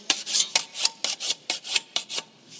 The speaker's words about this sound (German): Und dann zieht man mit dem, mit dem Stein, zieht man da Klingen ab, von der Basis gegen die Spitze. Immer einmal hinten, einmal vorne.